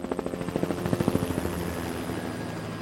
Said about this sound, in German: Oft bekommen die Kreuzer Hilfe aus der Luft. In langer Tradition arbeiten die Rettungsorganisationen weltweit mit Hubschrauberstaffeln der Marine zusammen. So auch in Cuxhaven. Der Hubschrauber kann als Vorhut schnell am Einsatzort sein